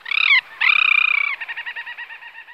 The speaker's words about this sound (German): Die Krabbentaucher. Hochinteressante Seevögel. Über 900 Exemplare sind jetzt hier bei uns. Erstaunlich. Eigentlich fühlen sich Krabbentaucher hoch im Norden wohl, wo es viel kälter ist. Ein Wunder dass die hier sind. Und so hören die sich an.